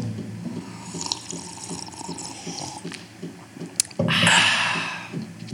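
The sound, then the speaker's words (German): Tea pours steadily with a gurgling trickle, then a brighter, louder splashing stream near the end, clear with no talking. “sonst machen wir, sonst machen wir, wir einfach, einfach eine halbe Stunde und trinken Tee, ohne dass wir reden.”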